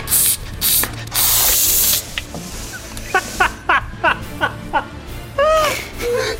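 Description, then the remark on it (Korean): A voice imitates an old steam iron at work, as if moving the iron to the right, back to the left and pressing a corner hard: several loud, breathy steam hisses, then a quick run of short, squeaky clicking chirps, ending with a brief wavering whistle-like tone. “다리미 오른쪽으로 다시 왼쪽으로 이 모서리는 강하게 뒤처리 깔끔하게”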